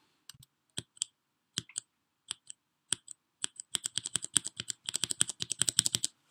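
Keys tapped on a brown-switch (tea switch) mechanical keyboard, a switch type between blue and black switches with both a tactile bump and smooth travel: scattered single clicks at first, then a quick, steady burst of crisp typing that fills the final seconds. No voices accompany it.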